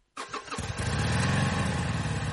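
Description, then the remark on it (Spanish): A motorcycle engine cranks and fires up abruptly, then settles into a loud, steady rumbling idle, with no one speaking. “Moto.”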